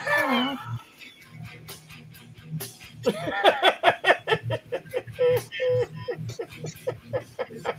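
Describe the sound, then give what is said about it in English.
A puppy whimpers and yips in a string of short, high-pitched cries, with people chuckling and talking underneath. “I'm just showing off his puppy.”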